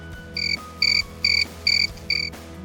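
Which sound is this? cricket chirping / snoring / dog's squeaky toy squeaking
cricket chirping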